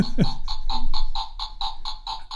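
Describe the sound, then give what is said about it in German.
A party-game toy bomb going off: a rapid, steady string of harsh electronic buzzing pulses, about four per second, loud, with no talking over it. “Also gerade ging die Bombe hoch.”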